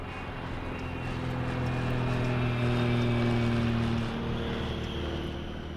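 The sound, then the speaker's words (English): A small 16-seat plane chartered by MSF, flown in from Djibouti, drones loudly and steadily with a rumbling, humming tone, then shifts down in pitch near the end as its wheels touch down on the tarmac at Sana'a Airport, Yemen, the plane shuddering violently. “As its wheels touch down on the tarmac at Sana'a Airport, the plane that has just 16 seats shudders violently.”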